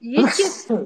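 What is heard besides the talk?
sneeze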